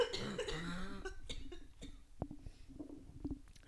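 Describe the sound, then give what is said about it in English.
A person coughs, a strained, throaty burst followed by several shorter hacking coughs and rough breaths, with no talking. “Sorry, I'm gonna cough again.”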